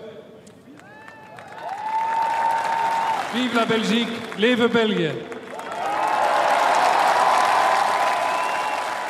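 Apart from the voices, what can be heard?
crowd cheering and applauding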